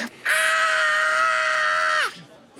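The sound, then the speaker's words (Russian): A censor bleep sound effect used to bleep out profanity: one loud, shrill, steady squeal held for about two seconds on its own, dipping slightly in pitch just as it cuts off. “Поскольку у нас 18 плюс, у нас и ненормативная лексика тоже присутствует. Да, которая будет запикиваться следующим звуком.”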